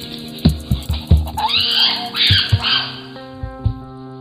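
A chimpanzee hurls stones against a tree chosen for its deep, dull impact sound, producing several hollow thuds in loose pairs, then runs off, with loud, raspy screeching calls rising up in between.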